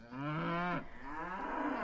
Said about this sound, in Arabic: بتكون ماشي بالبستان بتسمع صوت بقرة من بعيد مستقبلات الصوت جوا دانك بتستقبل الصوت ومباشرة بترسله لجهازك العصبي لمخك لحتى يحلله ويتعرف عليه ويقول لك آها هذه بقرة